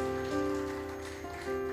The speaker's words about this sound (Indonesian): Berikan tepuk tanganmu yang paling meriah untuk Tuhan.